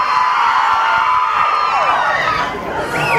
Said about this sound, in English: Right now, the mobs are going crazy for free, stupid shirts that they'll probably only wear at home.